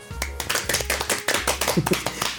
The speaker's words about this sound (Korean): 좋다고 맨날 박수를왜 이렇게 치는지. 박수 쳐야지 시작하는 것 같아요.